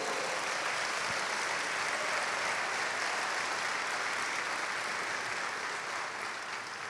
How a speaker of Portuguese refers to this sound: Pastor amado, quer dar um aplauso, por favor.